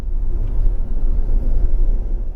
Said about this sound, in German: Der Zarengoldzug hat Fahrt aufgenommen und rattert durch die Nacht seinem ersten Halt entgegen, dem 790 Kilometer entfernt liegenden Kasan.